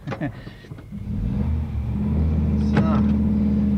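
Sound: car driving off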